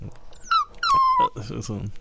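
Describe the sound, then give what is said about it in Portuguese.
A person squeals out two high, gliding whistle-like cries in imitation of a dolphin, the second longer and steadier, followed by a burst of lower voiced chatter. “Olá, golfinho.”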